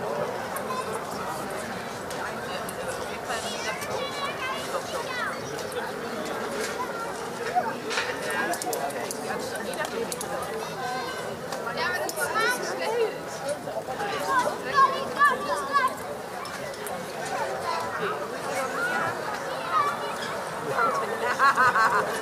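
Street ambience at dusk on a summer evening in Berlin: a steady, fairly loud murmur of many overlapping voices with scattered laughter and occasional light clattering, continuing without pause throughout.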